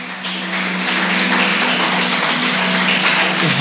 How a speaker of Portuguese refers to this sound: Pode aplaudir o Senhor.